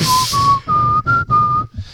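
A person whistles a short melody, a clear pure tone stepping through a few sustained notes with brief breaths between phrases, loud against a faint low background.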